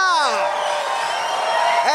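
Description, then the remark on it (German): A crowd gives a standing ovation to welcome Jesus, cheering loudly and continuously, excited voices whooping and shouting over a dense wash of clapping, with rising yells at the start and again near the end. “mit einem riesen Applaus, Standing Ovation nennt man das auf Englisch.”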